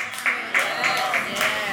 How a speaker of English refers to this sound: I'm gonna, I'm gonna let that person clap it out till we start. Get, get this room going. Come on, clap.